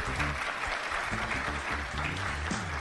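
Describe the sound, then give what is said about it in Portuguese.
Steady audience applause welcoming back Joyce Hasselman, journalist and director of Band News FM Curitiba, a dense wash of many hands clapping at a constant loudness throughout, with faint musical tones running underneath. “E para isso eu quero trazer de volta aqui a jornalista diretora da Band News FM Curitiba, Joyce Hasselman, para os seus aplausos.”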